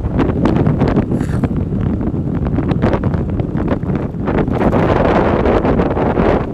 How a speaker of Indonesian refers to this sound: ini jalan sini rupanya anginnya keras sekali